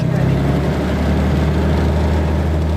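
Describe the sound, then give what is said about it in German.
A small Cessna propeller plane bumps along toward the runway, its engine droning at a low, steady pitch, a loud continuous hum with a throbbing low rumble and a faint rushing hiss above it. “Die kleine Propellermaschine holpert in Richtung Startbahn.”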